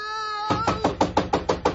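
A rapid series of about seven sharp knocks on a door, evenly spaced and fairly loud, following a brief tonal sound at the start.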